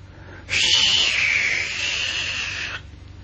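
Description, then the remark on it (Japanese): A breathy, high-pitched rush of wind swells in suddenly and holds steady for about two seconds before cutting off, a fairly loud hissing whoosh with no voices over it. “ああ、風が吹いてる。”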